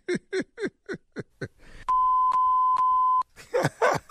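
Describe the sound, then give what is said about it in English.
Three loud, steady censor bleeps run back to back with barely a gap, sandwiched between short rhythmic bursts of voice before and a burst of voices after. “What was that last three beeps right there?”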